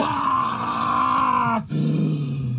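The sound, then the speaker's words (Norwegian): A man in a TV clip roars loudly, a strained, sustained bellow that breaks off briefly, then resumes as a lower, gravelly growl until the end. “altså, han har så gjenkjennelig stemme at det er sånn, en gang du hører, uansett om han brøler, så er det sånn at det, det er jo Til og med når han brøler, så kjenner du igjen”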